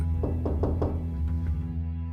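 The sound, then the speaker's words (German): Several firm knocks on the door of an attic apartment on Eichendorfstraße in Halle, very early in the morning: a quick run of four followed by two more after a short pause, fairly loud over a steady low hum. “da klopft es an die Tür einer Dachgeschosswohnung in der Eichendorfstraße in Halle.”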